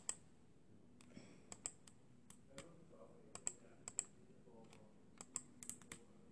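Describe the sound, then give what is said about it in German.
Irregular, crisp computer keyboard and mouse clicks as someone clicks through cards while building a deck in a card game, tapping in short bursts and scattered single presses over a faint hum, with no talking. “Ich klicke halt jetzt gerade ein bisschen durch so.”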